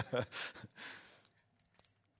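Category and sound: household object, key being handed over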